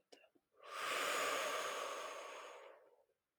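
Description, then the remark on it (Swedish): A long, deep exhale blown out steadily for about two and a half seconds, breathy, after a brief faint catch of breath, during a guided breathing exercise. No talking. “Och vi andas ut.”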